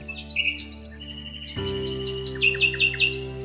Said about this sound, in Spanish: era el ruiseñor.